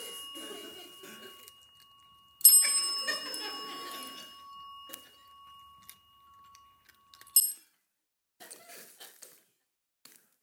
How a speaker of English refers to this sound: And you notice one cat thinks that the other cat's bell works better than his bell, right? I like your prayer better.